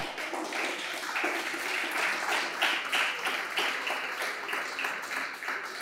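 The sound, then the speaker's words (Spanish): A church audience applauds steadily during a sermon, a dense wash of many hands clapping at an even level for several seconds with no voices standing out. “Dese fuerte el aplauso.”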